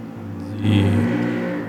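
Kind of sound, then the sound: vehicle, motorcycle driving past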